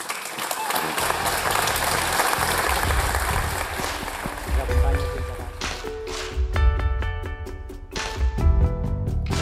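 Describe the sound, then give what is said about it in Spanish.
An audience applauds with a dense, steady wash of clapping for several seconds, then the clapping thins out as sustained tonal sounds rise over it toward the end. “Sin más, os pido un fuerte aplauso y...”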